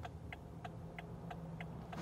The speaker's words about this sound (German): somit das lauteste, was man hier drinnen im Auto hört, ist ähm, der Blinker. Der Rest ist sehr, sehr leise.